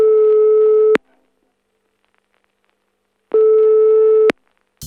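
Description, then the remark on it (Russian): A telephone ringback tone for an unanswered call to Zelbervarg, made outside a dilapidated old mansion: two steady, buzzy mid-pitched beeps about a second long, separated by a long silent gap, with no one picking up. “Я позвонил Зельберваргу.”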